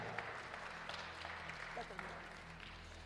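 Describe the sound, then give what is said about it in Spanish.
A church audience applauds the Lord steadily, a dense, continuous wash of clapping hands with a low hum underneath and scattered voices mixed in. “Démosle un aplauso al Señor, iglesia.”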